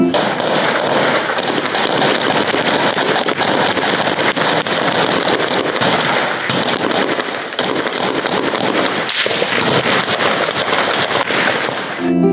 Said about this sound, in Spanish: Son las calles de la colonia San Lorenzo en el municipio del Salto, que la noche del miércoles se convirtieron en la escena de un enfrentamiento a balazos.